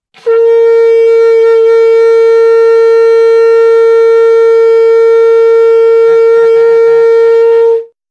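A kudu horn sounds one long, loud, steady blast with a bright, buzzy tone, holding a single pitch for about seven seconds before wavering slightly and cutting off. No one speaks.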